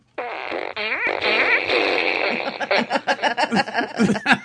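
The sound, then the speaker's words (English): A long, loud, buzzy fart sound effect from a fart machine, with a wobbling pitch, runs for a couple of seconds, then breaks into bursts of laughter. “should do the fluff machine with that sound.”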